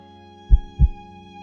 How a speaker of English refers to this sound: Her heart beat gently, like a tiny drum